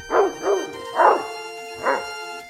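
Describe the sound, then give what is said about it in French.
A neighbour's dog barks four times in an uneven rhythm, sharp, with short pauses between barks and no voices. “Le chien de la voisine aboie sans cesse”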